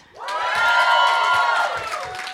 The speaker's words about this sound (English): A lot of people yelled for this game.